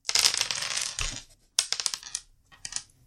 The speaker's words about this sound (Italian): Uh, devo tirare per uh, i dadi. Devi tirare per fare i cicli, esatto. Ho sei dadi, vi ricordo.